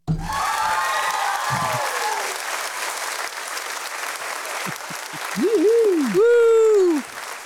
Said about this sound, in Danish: Vi, vi klapper, klap nu. ja. Men det er jo bare fordi, vores sound cancellation, det så tit dræber de der klaplyde.